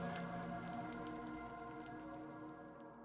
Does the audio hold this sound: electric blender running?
no